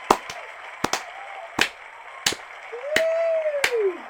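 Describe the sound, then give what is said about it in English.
A slow clap: sharp, loud handclaps spaced roughly two-thirds of a second apart, some doubled, with a brief rising-and-falling whoop or whistle near the end over a low background hum. “I'm going to do a slow clap.”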